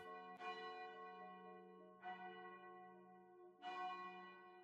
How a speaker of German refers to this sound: Dann nach so ein, zwei Stunden hörst du vom Norden her ein Glockenläuten.